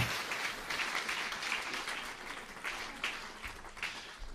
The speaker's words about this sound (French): Est-ce qu'on peut les, les applaudir Ils aiment pas ça, mais c'est comme ça.